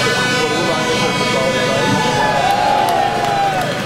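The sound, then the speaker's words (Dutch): Tractor horns blare in a dense, continuous din over a crowd at a farmers' protest, a colorful procession of tractors with angry farmers; sustained tones overlap with scattered toots and indistinct voices throughout. “een bonte stoet met tractoren eh, en boze boeren”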